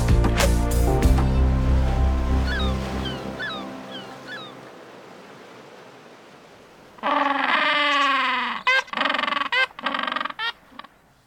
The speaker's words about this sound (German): Das war der Pinguin aus dem Bremerhaven Guide.